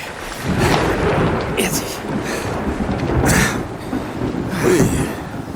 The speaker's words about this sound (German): Beeilung, Kollegen. Das Gewitter kommt immer näher.